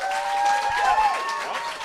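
An audience claps together to cast a vote, in a dense, steady burst of applause lasting a couple of seconds, with some cheering voices mixed into the noise.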